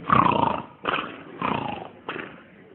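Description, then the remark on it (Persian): Loud, rough snoring from a person asleep at night rattles out in four throaty bursts with short gaps between them, harsh and growling in tone, with no talking alongside. “نصف شب از خواب بلند میشه نگاه میکنه میبینی یه نفر جفتش خواب عین شطور داره خور و پف میکنه”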